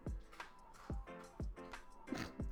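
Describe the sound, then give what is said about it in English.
Loud crunching chewing of food repeats in a steady rhythm about every half second, each bite a sharp, crackly burst with a low thump, and no one speaks. “Crunch, crunch, crunch. so loud.”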